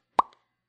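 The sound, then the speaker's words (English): A single sharp mouth pop made with the lips, imitating a head bursting, followed by a brief soft tail and a faint click near the end. “Remember, he says pop. His head just went.”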